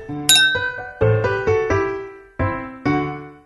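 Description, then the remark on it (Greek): Several wine glasses clink together in a toast, a series of bright ringing chimes, about six strikes in quick succession, each ringing out and fading, fairly loud with no talking. “Εις υγείαν. Εβίβα.”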